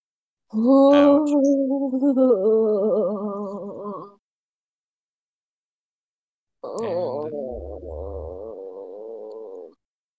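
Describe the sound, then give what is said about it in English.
A voice imitates someone getting hit during combat: two drawn-out, wavering pained groans, loud, separated by a few seconds of silence. “That's that's the sound of someone who got hit during combat.”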